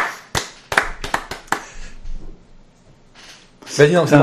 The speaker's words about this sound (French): Ça va, je profitais pour une fois de vos applaudissements. C'est vrai. C'est rare.